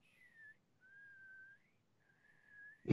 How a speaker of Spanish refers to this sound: Ya está, o sea, eso es lo máximo que puedo. es lo máximo que puedo alcanzar, tío, para silbar, ¿verdad? Además, de verdad. O sea, lo más, lo más, fuerte que puedo silbar es eso.